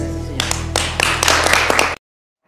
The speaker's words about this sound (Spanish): Bueno, pues ahí escuchó las palabras conciliadoras del presidente de la República, Andrés Manuel López Obrador. Aplausos hasta el final, ¿no?